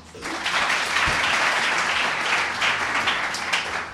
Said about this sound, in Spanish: Un fuerte aplauso, chicos, ¿no?